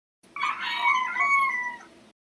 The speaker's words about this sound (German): Was ist denn mit den Hähnen los? Statt einem satten, gekonnten Kikeriki kommt da meistens teilweise nur ein Kekerik rechts heraus.